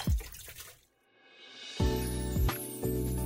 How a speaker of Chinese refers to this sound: 吃过晚餐，爷爷在洗碗，奶奶将盘子、杯子归位。